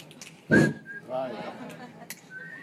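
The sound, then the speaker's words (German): Two short, clear whistled notes replacing the count of two in a group counting exercise, the first starting with a sharp burst and the second near the end, with a brief spoken word in between. “Wir setzen die zwei durch ein Pfeifen.”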